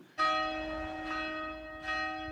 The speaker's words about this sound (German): 12 Uhr mittags. Die Glocken der St. Martin-Kirche läuten zum Angelusgebet.